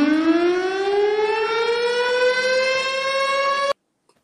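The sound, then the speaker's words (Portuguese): A loud siren wails steadily for several seconds, its pitch slowly rising throughout, then cuts off abruptly into near silence. “Quer sirene ou pô, cair direto?”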